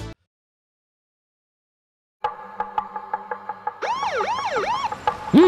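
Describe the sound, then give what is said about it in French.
After a couple of seconds of silence, a police siren starts with a steady pulsing tone, then switches to a fast, repeating rise-and-fall wail, loud, with no talking. “Attention, c'est la police.”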